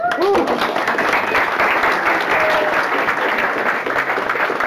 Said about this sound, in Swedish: En applåd!